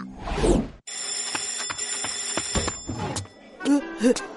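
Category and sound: household object, alarm clock ringing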